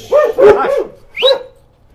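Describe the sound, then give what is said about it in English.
A dog in a backyard barks in a quick burst of three or four sharp barks, pauses briefly, then lets out one more bark before falling quiet. “We're sitting in the Yes. backyard with a couple of crazy dogs.”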